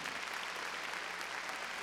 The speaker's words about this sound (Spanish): A ver, démosle palmas fuertes a Él.